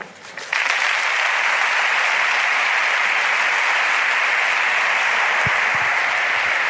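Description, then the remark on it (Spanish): A crowd bursts into strong, sustained applause, a dense wash of clapping that swells in after a brief quiet start and holds steady and loud to the end. “Fuerte ovación a este pasaje en el que ha hecho referencia a otro nieto que todavía está en el vientre de su madre.”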